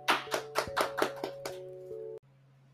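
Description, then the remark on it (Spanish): Brief applause of about seven sharp, evenly spaced hand claps over a steady low tonal hum, ending abruptly after roughly two seconds. No voices are heard. “El día de hoy tengo un invitado muy especial, pero antes un fuerte aplauso.”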